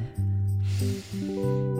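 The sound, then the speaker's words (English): A person holding a pencil takes a long, deep breath in through the mouth, a soft airy hiss lasting about a second, over a steady low humming tone in the background. “All right, hold your pencil in your hand, take a deep breath,”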